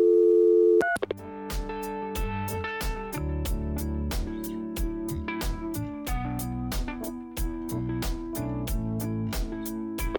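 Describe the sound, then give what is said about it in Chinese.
Telephone dialing tones on a customer service call: a short steady tone gives way to a rapid, rhythmic run of pitched beeps with sharp clicks, going on for about ten seconds. Nobody speaks. “OK，我们的结尾我们就先直接换到 survey，换到最后一个部门吧，就是正式的客服电话就结束了，对吧 ？”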